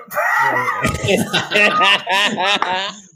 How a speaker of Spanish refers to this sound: Deja al chiquillo, hombre, déjale que grite y que no pase nada.